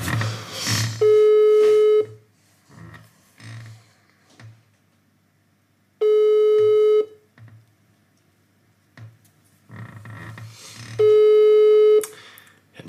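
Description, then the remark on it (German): A phone line's ringback tone sounds three times during a call placed at half past ten in the evening, each steady one-second beep about five seconds apart, fairly loud, with quiet murmuring voices in the gaps between rings. “Du musst schon rangehen, das ist wichtig, ne?”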